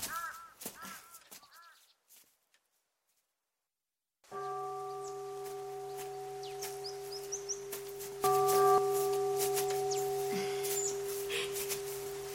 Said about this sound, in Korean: 종소리 들으면서 걸으니까 마음이 참 편안해지네요.